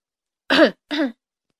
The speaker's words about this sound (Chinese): 国王咳嗽了几声